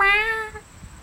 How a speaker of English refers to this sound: a kitty comes strolling up and nudges its head against Ben's leg and starts meowing and slightly purring at him.